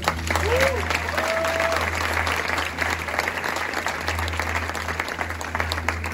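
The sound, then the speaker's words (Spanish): Steady audience applause for the speaker's wife fills the whole stretch, a dense wash of clapping at an even, fairly loud level, with a brief whistle-like tone rising over it early on. “Le podemos un fuerte aplauso a mi esposa.”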